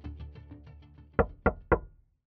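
A man knocks three quick, sharp knocks on a car window, crisp, ringing briefly against a low, murmuring background that fades out afterward.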